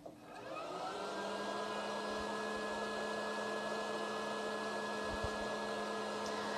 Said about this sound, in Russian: Теперь мы посмотрим на еще одно устройство, автоматизирующее, так сказать, написание текста шрифтом Брайля, называется оно принтер Брайля. В данный момент это принтер от компании Everest D5. Сейчас мы его включим.